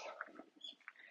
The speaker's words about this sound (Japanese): Maybe you hear some birds chirping. 鳥の声がもしかしたら入っているかもしれないです。私が大好きな散歩コースから、今日は外から録音してます。